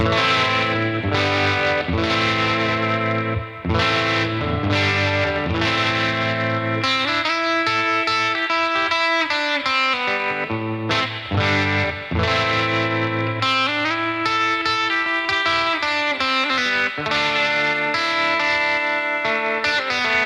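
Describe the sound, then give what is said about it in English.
A distorted Starfire electric guitar plays chords and melodic lines. It runs through an Analog Man ARDX20 analog delay and an Effectrode Delta Trem into a Victoria 35115 Tweed Pro amp with a 15-inch speaker. The sound has a pulsing tremolo warble and a touch of echo, loud and continuous throughout, with no voices. “I ran that into an Analog Man ARDX20 analog delay, that then to the Delta Trem, and then the Delta Trem went into a Victoria 35115, which is a Tweed Pro.”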